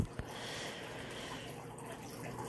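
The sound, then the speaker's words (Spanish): Water runs steadily out through a channel, a soft continuous rushing and trickling flow, with a single faint knock near the start and no voices. “y ahora es más rápido, así es que el agua va saliendo por el canal.”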